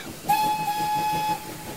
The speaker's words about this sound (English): The little train chugged by on its way back down.